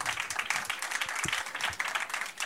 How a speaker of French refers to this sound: Merci, vous pouvez les applaudir.